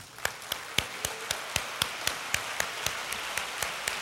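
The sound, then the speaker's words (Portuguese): Congregation applause at a church service, clapping for the word of the Lord in a steady, rhythmic beat: about fifteen sharp, evenly spaced claps over four seconds, moderately loud, with no one speaking. “E a palavra do Senhor merece palmas.”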